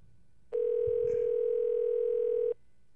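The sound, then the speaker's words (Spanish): A steady, unbroken telephone dial tone hums at a single mid pitch for about two seconds, then cuts off abruptly; low background noise surrounds it and no one speaks. “llámate Solvetín ahí, llámate, llámate, llámate”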